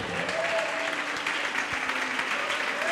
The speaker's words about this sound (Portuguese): Oh, glória! Vamos aplaudir ao nome do Senhor.